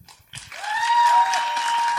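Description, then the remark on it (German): Audience applause for a band swells in after a brief quiet start, a dense, steady patter of many hands, with a sustained whistle-like tone riding over it throughout. No one speaks. “Und jetzt noch äh, euer Applaus für ….”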